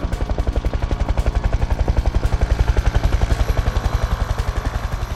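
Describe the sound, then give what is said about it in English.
A loud, steady rotor thrum of incoming flying binary hunter drones, its fast rhythmic pulsing beating continuously like a helicopter, with no voices. “Incoming binary hunter drones, Beninja yells.”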